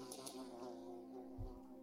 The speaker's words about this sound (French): Un bruit sur le côté, un mouvement devant vous, le bruit de cette chaise, de ce fauteuil, de cette mouche.